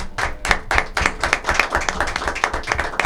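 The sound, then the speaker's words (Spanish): A crowd claps steadily for about three seconds for a Lomas de Zamora Facebook group reaching 100,000 members, sharp overlapping hand claps forming a dense, fairly loud wash of applause with no voices over it. “Y han cumplido, y por eso les vamos a dar un fuerte aplauso, los 100.000 miembros en su grupo.”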